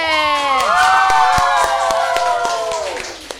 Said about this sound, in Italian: E signori e signori, voglio un super applauso per il ritorno di Radio Sei Forte!